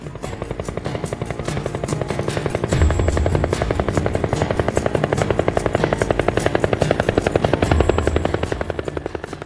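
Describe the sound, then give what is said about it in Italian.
A helicopter arrives at an airport, its rotor blades chopping in a fast, steady rhythm over a loud engine whine, swelling slightly as it passes, with no voices present. “Per questa ragione in aeroporto arrivò un elicottero che ci portò direttamente alla Cinta d'Olivo, la residenza estiva, dove anche io fui fatto alloggiare.”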